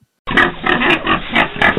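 animal, pig grunting

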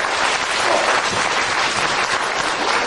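crowd, audience applause

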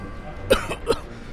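human body sound, cough

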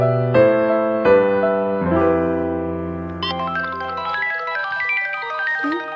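signal or alarm, mobile phone ringing

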